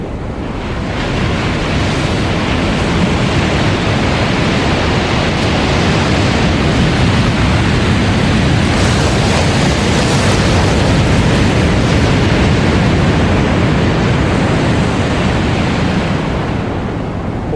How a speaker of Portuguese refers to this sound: tenta subir, a terra é um pouco é, solta, ele pisa, escorrega, a água bate nele e vai arrastando ele para baixo.